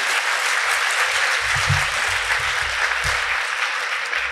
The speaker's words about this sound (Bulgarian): Ако може да ми честитите така с аплодисменти, да се почувствам. Благодаря.